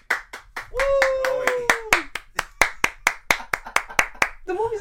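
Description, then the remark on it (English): A single pair of hands claps on request as a background sound, in a steady, brisk rhythm, about four sharp claps per second, while a voice briefly talks or hums over the start and end. “Yeah, I need you to clap, bro.”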